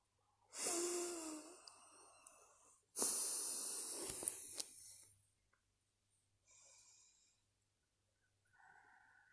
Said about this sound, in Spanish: Mantén esto con cuatro respiraciones nasales alternas. Inhala y exhala cuatro veces a través de cada fosa nasal, seguida de una respiración profunda a través de ambas fosas nasales.